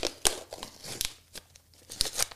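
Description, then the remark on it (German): Crinkling and tearing of a plastic-sealed Feel Food Italian Style instant meal cup, about the size of a coffee cup, being opened, a series of sharp, uneven rips and rustles over a couple of seconds, with no talking. “Äh, ich mache das jetzt mal auf und entgegen aller Tipps unseres Producers habe ich heißes Wasser mit hier hingebracht.”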